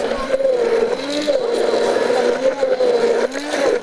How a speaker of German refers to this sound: Wenn ihr immer nur den Mixer aufnimmt, ist das nicht Sehr so cool.